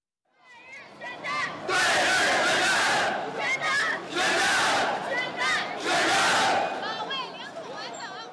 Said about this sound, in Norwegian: Til krig mot Japan ropte demonstrantene entusiastisk på tirsdag. Drep de japanske hundene.